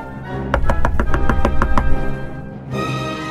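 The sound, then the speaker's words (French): Someone knocks on the door of a grandmother's house: a quick, evenly spaced series of about nine sharp raps at moderate loudness, followed by a short pause and faint rustling, with no voices. “Arrivé devant la maison de la grand-mère, il frappa à la porte.”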